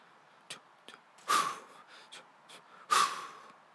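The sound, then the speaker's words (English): Heavy breathing of a sprinter: two loud, rushing breaths roughly a second and a half apart, with a few faint clicks and softer breath sounds between them and no talking. “Maybe the sound of your own breathing”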